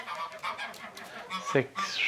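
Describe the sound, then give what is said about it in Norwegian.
Smålen geese, an endangered goose breed, honking in a busy overlapping chorus, with repeated nasal, mid-pitched calls and a few sharper rising honks, moderately loud throughout. “Eh, så er det smålensgjessa.”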